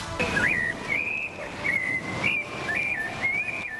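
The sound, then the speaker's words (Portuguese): A sabiá thrush sings at night, clear whistled phrases, a series of short fluting notes that rise and fall, repeating every half second or so over a steady low background hum. “Os sabiás trocam o dia pela noite.”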